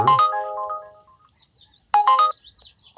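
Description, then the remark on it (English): A bright electronic Trip Radar trip-request alert chime from a rideshare driver app sounds twice, a short melodic burst of tones, a pause of over a second, then the same chime again, loud with faint background noise between. “I love that wonderful sound. See, search is not going away. Here comes Trip Radar.”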